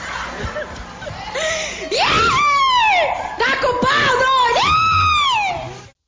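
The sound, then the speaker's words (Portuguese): A crowd bursts into loud, sustained booing and jeering, voices rising and falling in long drawn-out wails for several seconds before cutting off abruptly. “Solta a vaia, menino!”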